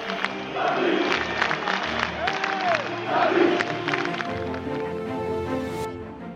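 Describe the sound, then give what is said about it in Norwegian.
A large football crowd on The Cop chants the name Dalglish in unison during autumn 2010, a loud rhythmic roar of many voices with scattered shouts and whistles filling a big open stadium. “og hele høsten 2010 var det ett navn som ble ropt fra The Cop, Dalglish.”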